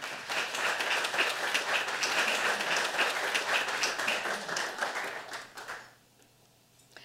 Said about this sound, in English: Please give a big round of applause for Abby Smith Rumsey.